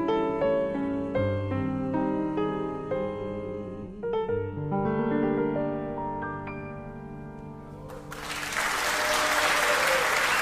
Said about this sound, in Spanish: Aplaudo junto a los que aplauden.